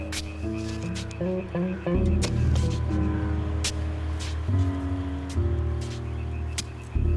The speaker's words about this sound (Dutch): Oeps, een auto. Wat zullen we nou krijgen? Geen politie. Misschien komt hij zand halen, net als wij.